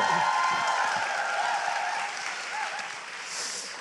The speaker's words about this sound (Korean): 박수 한 번 다시 한번 좀 어.